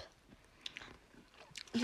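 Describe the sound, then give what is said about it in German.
Crunchy chewing, a few quiet crisp bites at first, then a louder crackling crunch near the end, as someone munches Tuc sea salt crisp crackers, which are extra crispy and extra thin, with no talking. “Die heißen, also die sind von Tuck und die heißen Meersalz Crisp”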